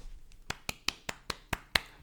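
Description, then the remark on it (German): A short burst of about seven hand claps in a quick, steady rhythm, sharp, with no talking over them, clapping for the firing of Greg Williams of the New York Jets. “Greg Williams, da muss man mal kurz klatschen, ist gefeuert worden.”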